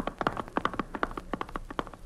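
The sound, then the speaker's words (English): Horse hooves clip-clop in a brisk, steady rhythm of hollow knocks as riders head down the road to the Landis Cabaret. The sound is fairly loud and continues throughout with no voices over it. “okay, come on, let's get on our horses.”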